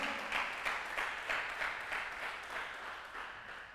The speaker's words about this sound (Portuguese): Isso, pode aplaudir.